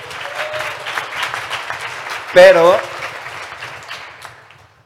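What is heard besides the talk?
audience applause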